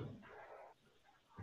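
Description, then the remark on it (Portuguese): Choppy, garbled fragments of a participant's voice on an online call break up and freeze, cutting out midway just as he speaks, leaving near silence before a short, muffled burst of sound at the end. “para mim tu travou bem na hora que tu falou.”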